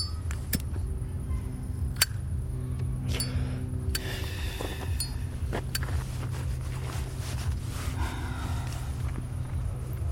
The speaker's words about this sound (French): Coupe ton moteur, putain, coupe Mais tu t'as vu le bruit que tu fais avec ta pétrolette